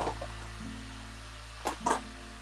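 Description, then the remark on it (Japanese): A hair dryer drones steadily in the background, a faint airy whir with a low motor hum, broken near the end by two brief louder bursts of rushing air. “ドライヤーを使っておられる。”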